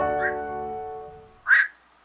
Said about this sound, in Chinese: 哦，乖乖，这种鸟叫的声音呢，叫做夜鹭。它有一个台语的说法，叫做暗公叫。它呢，在台湾各个地方都很常见，是一种水鸟，也是捕鱼的高手哦。